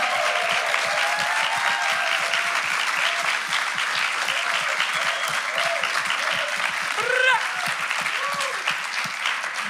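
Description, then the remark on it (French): A crowd claps loudly and steadily throughout, a dense wash of applause mixed with scattered whoops and cheers rising above it. “Can we give them a huge Est-ce qu'on peut faire du bruit”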